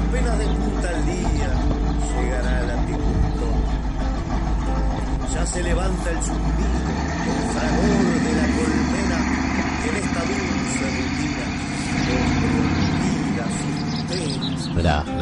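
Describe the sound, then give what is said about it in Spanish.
A pickup truck driving along at dawn, its engine giving a steady, loud low rumble for the whole stretch, with indistinct voices murmuring underneath the motor noise. “la camioneta, el andar de la camioneta, el sonido de fondo del amanecer, el sonido de la radio, ¿eh?”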